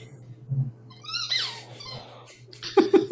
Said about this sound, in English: I hear a squeaker toy. Yeah, because Cooper wants to be.